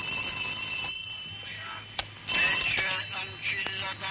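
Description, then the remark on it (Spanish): A telephone rings with a high, shrill, warbling tone that repeats in steady bursts over a faint background hum, growing louder partway through, as a young woman gets up to answer it. “Al oír el teléfono, la joven se levanta para responder.”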